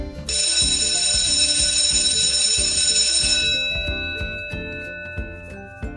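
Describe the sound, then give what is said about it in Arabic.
A school bell rings loudly in one continuous, shrill burst for about three seconds, then stops and its tone fades away, with a steady rhythmic thumping underneath throughout. “وفي المدارس الأجراس كانت وما زالت مفتاحاً لباب الفصل يعلن بداية حصة أو فسحة أو مرواح”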